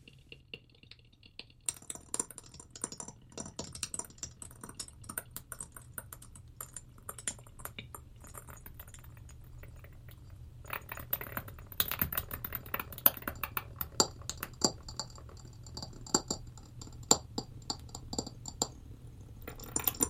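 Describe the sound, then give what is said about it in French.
Stones tapped and clicked against each other in an irregular, sparse rhythm of sharp, close knocks over a steady low hum, growing busier and denser midway through, with no voices. “On va mettre un, petit extrait de l'enregistrement de la pièce qu'on a fait pour euh, Verekia justement.”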